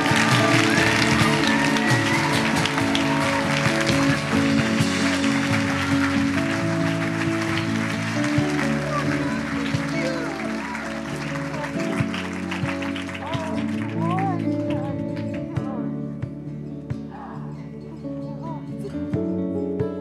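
An audience claps for Jesus, steadily and loudly in time with music, the dense rapid clapping layered over sustained keyboard or organ tones and occasional voices, easing slightly toward the end.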